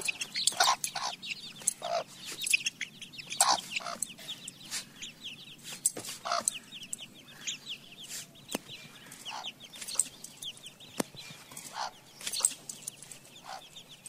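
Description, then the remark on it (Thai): A hen clucks in short, sharp bursts while a flock of chicks keeps up rapid, high peeping, busy, with no voices present, as the mother hen shelters her chicks under her wings when a dog approaches. “อยากจะฉายภาพยนตร์เรื่องนั้นซ้ำอีกครั้งหนึ่งเป็นภาพยนตร์เรื่องเกี่ยวกับว่า แม่ไก่ปกลูกของมันเมื่อสุนัขมา ไหนฉายภาพยนตร์นั้นอีกทีได้ไหมครับ”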